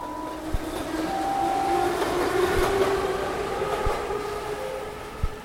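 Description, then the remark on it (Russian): A train rolls along the rails with a steady, loud rumble and metallic screeching tones, punctuated by occasional sharp clacks from the wheels over track joints. No one speaks. “В таком состоянии она проехала до своей станции.”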